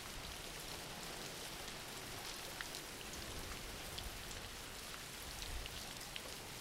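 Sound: rain falling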